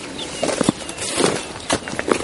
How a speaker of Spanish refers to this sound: Y bueno, y lo siempre hay pajaritos